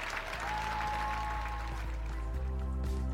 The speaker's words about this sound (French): Drapeau jaune et bleu érigé sur scène, main sur le cœur, les artistes terminent la représentation en chantant l'hymne ukrainien sous un tonnerre d'applaudissements.